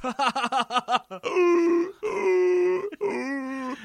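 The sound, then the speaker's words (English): A person imitates a man's strange donkey-horse-like laugh, starting with quick choppy hee-haw bursts, then breaking into long, wavering braying cries, loud, with no other talk. “like this weird donkey horse sound.”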